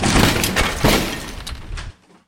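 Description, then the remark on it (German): An office door being broken open: a loud, harsh crash of splintering and shattering, with several heavy impacts over about two seconds before it cuts off. No one speaks. “Wir brechen die Tür zum Büro auf.”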